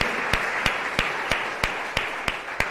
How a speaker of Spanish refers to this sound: Yo quiero aplaudirlos a ustedes, por favor, un aplauso a ustedes, porque vinieron.